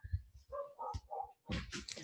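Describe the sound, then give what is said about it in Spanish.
A dog barks and yips several times in quick succession, loud, with short whining tones between the barks and no talking. “Estos días hemos tenido gatos, eh, perros en otras entrevistas, es decir, que no.”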